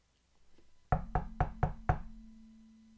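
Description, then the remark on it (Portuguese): Five firm, evenly spaced knocks on a wooden farmhouse door, fairly loud, with a low hollow ring lingering after the last one. No voices are heard. “bateu à porta da fazenda.”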